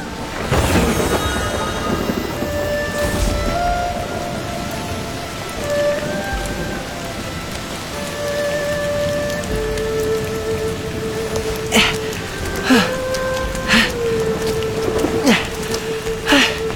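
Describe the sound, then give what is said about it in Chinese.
Heavy rain pours down suddenly, just after stars and moon were visible, in a steady, dense hiss, with a few sharp thunder cracks near the end and faint sustained tones lingering underneath. “奇怪，方才还能瞧见星星月亮，怎么突然就下雨了？ 这么大的雨，咱们还是回去吧。”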